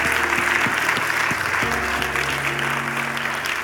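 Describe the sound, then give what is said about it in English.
A large audience claps steadily and loudly as a hand clap of worship to God at a church service, a dense wash of many hands applauding together, with some organ-like sustained tones ringing underneath. “Come on, let's give him a hand clap of worship.”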